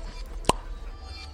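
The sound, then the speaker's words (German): A single hollow pop of a round, slightly moldy cork being pulled from a glass jar, short, standing alone against quiet room tone. “Er greift in einen, in einen Glastopf, auf dem vorher ein wunderschöner, runder, leicht schimmeliger Korken war”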